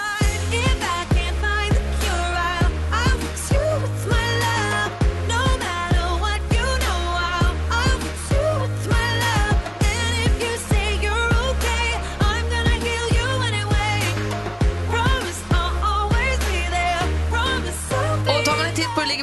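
A loud, upbeat new pop song, number one in England, plays throughout, with a steady thumping beat, a deep repeating bassline and a bright sung melody layered over dense instrumentation.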